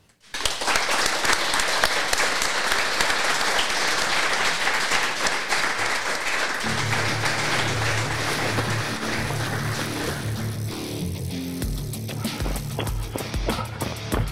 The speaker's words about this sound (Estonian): teeme ühe suure aplausi ka veel.